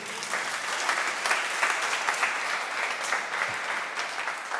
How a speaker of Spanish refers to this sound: Un aplauso, por favor, señores.